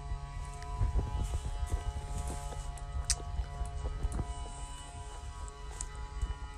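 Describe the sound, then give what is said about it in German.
A neighbor's battery-powered leaf blower runs steadily, its motor giving off a constant, fairly quiet whirring hum with airy rushing noise and no pauses. “Das ist der Laubbläser vom Nachbarn.”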